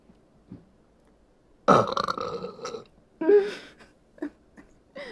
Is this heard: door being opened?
no